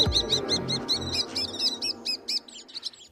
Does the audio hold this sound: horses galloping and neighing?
no